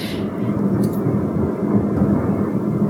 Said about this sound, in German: Hier ist gerade irgendwie ein Feuerwerk. Ist bei mir. Okay, äh, also entweder es explodiert gerade irgendwas oder es ist gerade ein Feuerwerk.